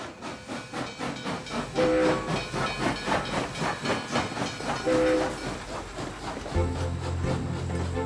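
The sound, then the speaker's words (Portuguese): A steam train chugs along in steady, rhythmic puffs with constant hissing, and short whistle blasts sound twice before a deeper, sustained whistle takes over near the end. No voices are heard. “A aventura começou logo no comboio.”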